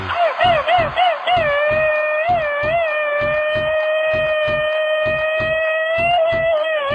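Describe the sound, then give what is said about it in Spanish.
A loud, high-pitched Mexican grito shout that starts with rapid, stuttering machine-gun bursts, then stretches into a long, sustained wavering cry over a steady thumping beat. “Ese grito ametralladora va dedicado a la gente de Coahuila.”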